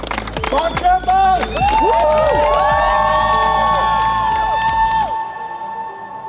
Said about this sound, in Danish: Til en æresport af vandstråler og jublende fans blev landsholdet her til eftermiddag modtaget i Københavns Lufthavn.